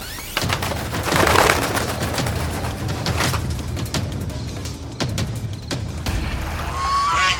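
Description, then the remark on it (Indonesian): A swan honks repeatedly and loudly over a rough, rushing background with sharp bursts, ending in a brief higher call. No one speaks. “Seketika itu juga Pangeran Jati berubah menjadi angsa.”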